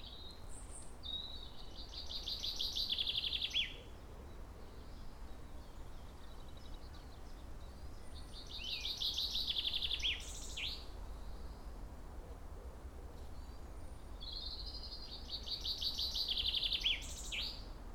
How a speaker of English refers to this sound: This is a much nicer place for a chaffinch.